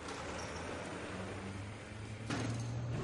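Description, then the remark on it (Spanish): A steady low rumbling slide builds and then ends in a firmer thud as two sliding street doors at a building entrance close, with no voices present. “Las puertas de la calle se cierran.”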